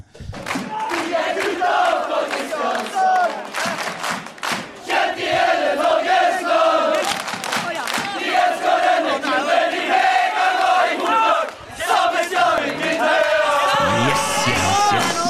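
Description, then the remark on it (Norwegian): A loud crowd of football fans cheers together with players and support staff gathered as close to the fans as possible, a sustained, rowdy roar with overlapping voices, whoops and chanting rising and falling over about fifteen seconds. “er oppskriften på hvordan du skal juble med startfansen fra nå av.”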